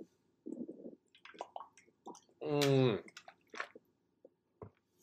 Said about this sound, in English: Pardon me for a water break.